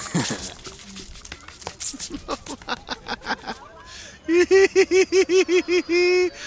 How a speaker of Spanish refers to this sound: Está cavando un hoyo entre dos tumbas y encontró un esqueleto sin lápida. Y lo está lamiendo como si fuera un cachorro hambriento.